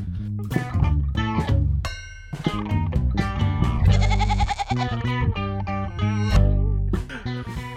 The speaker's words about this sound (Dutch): En die heeft dit mooie liedje gemaakt waar wij een geit onder gezet hebben. Dus hier komt het.